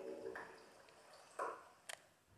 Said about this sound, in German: Ah, da kommt Wasser. Warum kommt da denn Wasser, ey? Ey, ist das kacke.